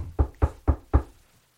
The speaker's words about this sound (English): Wait, there's a knock.